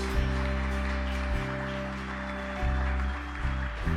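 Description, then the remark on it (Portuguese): A church audience claps in applause offered to God, a dense, steady wash heard over sustained, changing keyboard chords that drone underneath for the whole stretch. “A salva de palmas a Deus.”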